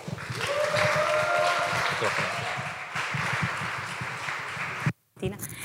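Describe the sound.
An audience applauds in a steady, dense wash of clapping for about five seconds, with some voices mixed in, then it cuts off abruptly before a brief scatter of sound resumes.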